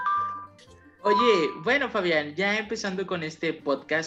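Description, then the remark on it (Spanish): A cellphone ringtone like an old house doorbell chimes for about a second at the start, a steady ringing tone, then a man begins talking over its fading end. “Suena así como timbre de esos de, de casa viejitos, de que le pica así.”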